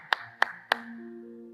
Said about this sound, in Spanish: Ahora yo te voy a aplaudir a ti. No, yo te voy a aplaudir a ti.